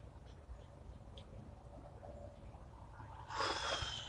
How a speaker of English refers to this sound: I don't know what bird that is, but it sounds loud as shit. Like there's a bunch of quiet birds, and then there's that big ass laser bird.